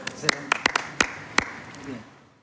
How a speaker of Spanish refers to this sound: Bueno, un aplauso para todo este equipo creativo.